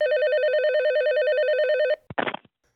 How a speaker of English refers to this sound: I thought one of my buddies was calling again to check on and see what was going on. And I picked up the phone